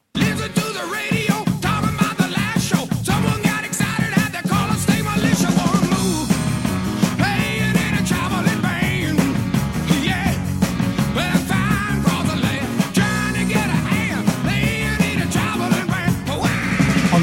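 A loud, driving rock song plays steadily for the whole stretch, with pounding drums, bright guitars and a shouted vocal line, and no one talking over it.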